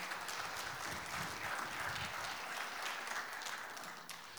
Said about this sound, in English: Come on, give him a great clap. Thank you, Bishop. Thank you, amen.